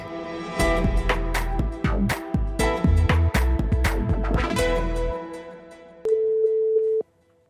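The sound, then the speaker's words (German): A rhythmic, punchy musical jingle fades out, then after a brief pause a single steady telephone ringing tone sounds for about a second, clear and fairly loud, as Swiss radio's News Plus calls a France specialist. “Telefon scheint ja noch zu funktionieren, anders als vielleicht mit Tanken stellenweise in Frankreich.”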